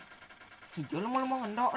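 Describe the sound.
A motorcycle engine hums steadily at low volume in the background throughout, with a person speaking over it partway through.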